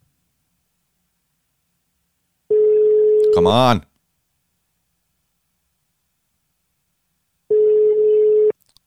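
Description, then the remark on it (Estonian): A steady telephone busy signal tone sounds twice, each beep about a second long with a long silent gap between. A man briefly mutters over the end of the first tone. “Please näe, et ma helistan.”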